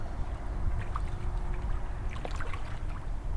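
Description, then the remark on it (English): Gentle water splashing and lapping with soft scattered sloshes over a steady low rumble as a person swims in calm, almost completely still, salty harbor water in the morning. No voices. “Here's the sound of the morning light at the harbor as I took a swim.”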